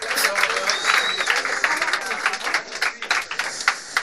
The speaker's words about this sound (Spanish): Bueno, por favor, os pido un fuerte aplauso, pero mucho más fuerte que el de antes, para ….